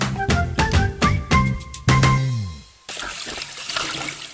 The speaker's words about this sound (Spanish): Pero no desperdices agua. Cierra la llave, por favor.